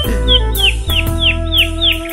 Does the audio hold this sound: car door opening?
no